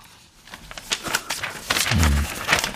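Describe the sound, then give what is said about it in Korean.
A paper script being crumpled, a dense, irregular run of crisp crackles and crinkles for a few seconds, with a brief low hum partway through. “종이 구기는 소리입니다.”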